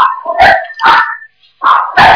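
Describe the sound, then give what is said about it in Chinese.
A family's dog at home barks loudly four times: two sharp barks in quick succession, a short pause, then two more. The barks sound strident and harmonic, with no talking over them. “我的妈呀，你们家这个狗怎么这么厉害？”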